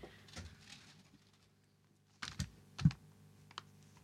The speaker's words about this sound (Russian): Я научилась держать ручку одним мизинцем, и сейчас я буду писать ей.